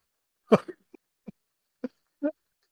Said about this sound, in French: Tu me fais tousser comme oh